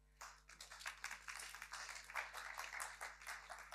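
A crowd gives a warm applause for a woman speaker, many overlapping hand claps forming a dense, sustained burst that stays fairly even in loudness throughout, with no one speaking over it.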